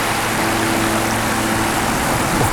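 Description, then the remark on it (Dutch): Seawater laps and babbles steadily against the basalt wall of the small Icelandic harbour of Hellnar, a continuous wash of water with a faint low engine-like hum underneath. “Babbelend in het IJslandse haventje van Helnar, omringd door een muur van basalt”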